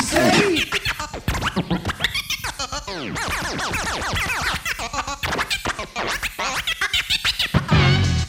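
Loud, busy DJ turntable scratching from a recorded track fills the whole stretch, a rapid run of back-and-forth record sweeps rising and falling in pitch with choppy, rhythmic cuts and no voices.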